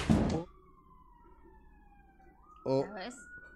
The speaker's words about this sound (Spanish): oigan, perdón, hay una patrulla aquí abajo que se le descompuso la sirena. Entonces están ahí, que desconecten la batería porque Sí, una disculpa, sí se escucha mucho, ¿verdad? Sí, no, qué horror.